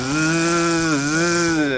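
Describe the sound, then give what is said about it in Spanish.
A mosquito makes a loud, continuous nasal buzzing that holds steady for nearly two seconds, its pitch dipping briefly midway like an insect whine. No voices accompany it. “Alto con el mosco.”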